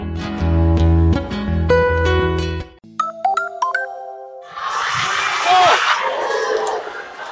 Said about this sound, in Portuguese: Esse é o som da torcida que esteve em um dos jogos da seleção feminina de futebol do Brasil durante as transmissões da Copa do Mundo da França. A arquibancada foi montada no Sesc Pompeia, em São Paulo.